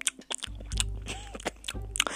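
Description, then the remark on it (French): Wet, smacking open-mouthed chewing of a mushy mouthful of banana, deliberately exaggerated, the piece rolled and crushed in the mouth with saliva, with irregular squelches and clicks over a low steady hum and no speech. “Genre, je faisais rouler le bout de banane dans ma bouche, je l'écrasais, je mettais de la bave, je le sortais de ma bouche, enfin bon, dégoûtante.”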